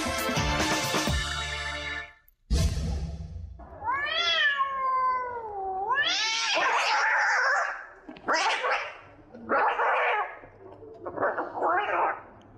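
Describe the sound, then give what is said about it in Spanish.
Cats fighting, with loud yowls and caterwauls rising and falling in long wavering cries, broken by harsh screeches and short pauses throughout. “No hay una pelea campal de gatos afuera de su casa o autos. Es tan solo nuestra historia sonora.”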